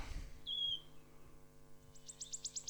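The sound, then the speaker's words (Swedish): A wood warbler gives a single drawn-out, plaintive whistled call note, then a quick run of thin, high notes that speed up toward the end, fairly faint over a low steady hum. “Eh, det här är då locklätet på grön sångare, lite lock, långdraget då.”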